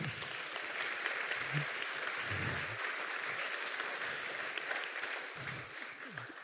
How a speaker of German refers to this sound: Und deswegen schätzen wir so sehr, dass Sie heute da sind. Gebt ihr doch nochmal einen Applaus.